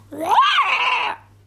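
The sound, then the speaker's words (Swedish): A child's voice imitates a fox scream: one drawn-out shriek that rises sharply in pitch, holds for about a second, then cuts off, with a faint steady hum underneath. “Jag tror en räv låter så här.”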